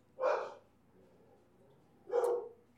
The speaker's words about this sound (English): Wow, the dogs are really worked up about something, aren't they? And apparently, there is not another person in my house who can quiet them right now. Okay, I think they're done.